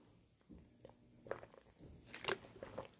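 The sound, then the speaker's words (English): Sips of water with wet mouth clicks and a couple of gulping swallows, quiet at first and growing louder toward the end, with no talking. “Talking about drinking, I'm gonna drink a sip of water right now.”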